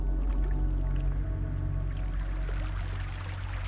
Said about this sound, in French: vous longez lentement un grand fleuve dont vous entendez glisser les eaux. Les eaux coulent dans le même sens que le train, à la même vitesse.